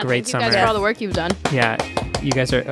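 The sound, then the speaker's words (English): A lone person claps a few sharp, irregular times while several people keep talking over it, the claps cutting through as brief dry smacks. “that is the sound of one hand clapping.”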